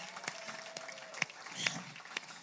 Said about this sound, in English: Let's welcome um, Pastor and a lovely wife. Thank you. You can do better than that. Clap, amen.